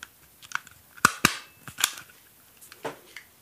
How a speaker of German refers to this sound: Ah, ein Tacker. Nee, ja, tatsächlich.